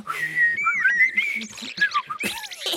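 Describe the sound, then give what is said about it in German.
A person whistles a quick, warbling run of varied notes imitating a blackbird's song, with sliding pitches and short trills, fairly loud and without talk. “Und jetzt, jetzt gerade lerne ich amselig.”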